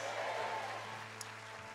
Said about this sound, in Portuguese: Enquanto você dá o maior aplauso dessa noite, você vai dizer mais uma vez: Glória a Deus. Capricha nesse aplauso aí, meu irmão. Deixa cair não.